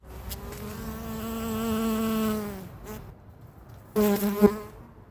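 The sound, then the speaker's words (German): A red-fronted dagger wasp (Megascolia maculata), Europe's largest wasp at three to over four centimetres long, buzzes steadily for a few seconds, fades briefly, then returns with a louder, rising drone, heard alone without any talking. “Was die Welt am Brummen hält. Die rotstirnige Dolchwespe.”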